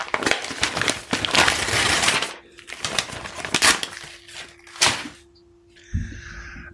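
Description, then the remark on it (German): Crinkly, crackling rustles of paper and packaging as a gift is unwrapped, torn and handled in bursts over several seconds, with a faint steady hum and a brief higher-pitched sound near the end. “Ich mach jetzt mal auf hier.”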